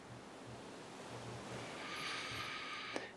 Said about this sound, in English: Imagine you're at the beach. Exhale you can hear the sound of the waves.